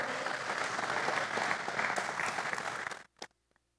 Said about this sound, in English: I told her, you can clap. Come on, don't be reluctant.